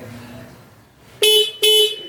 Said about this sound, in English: All right. Well, let's see what his first what it sounded like before with the stock S2R horn.